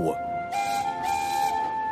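A train whistle sounds one long, steady, shrill note for a couple of seconds, with bursts of steamy hiss swelling in behind it partway through, heard across a snowy field.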